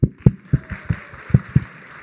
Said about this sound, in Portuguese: Você vai ser o último tímido, uma salva de palmas para o tímido.